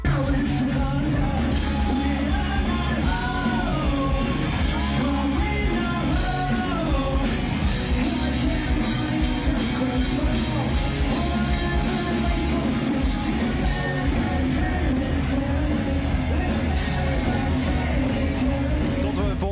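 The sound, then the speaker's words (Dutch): A loud, dense live band recording from a warm-up show in Las Vegas, with distorted guitars, driving drums and shouted vocals, the wash of a crowd blending into the sustained, energetic performance of a new song throughout. “komende week de officiële opnames horen, moet je het eigenlijk doen met deze live opnames.”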